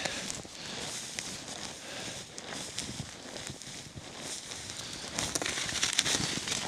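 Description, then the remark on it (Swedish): Footsteps of someone in snow pants crunch steadily through deep snow while looking for a spruce to camp under, a continuous run of muffled, crinkling steps at a moderate level with no talking over them. “Tusan vilken, vilken djup snö det är alltså.”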